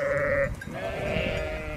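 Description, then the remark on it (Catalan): Sheep from a poor shepherd's small flock of mangy animals bleating: a short, nasal bleat, then after a brief pause a longer, wavering one, both fairly loud with no talking over them. “Seria carter a la vila i seria pas un pobre pastre sense sous, vigilant un magre escamot de bèsties ronyoses, que era la seva sola riquesa.”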